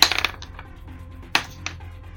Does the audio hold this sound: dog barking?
no